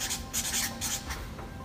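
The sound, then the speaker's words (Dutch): Scratchy pen strokes on paper in several short bursts as someone writes a note under their circle of influence, a steady rasping scribble that pauses briefly between strokes, with no talking. “Ja, ik ga dat bij mijn invloed schrijven.”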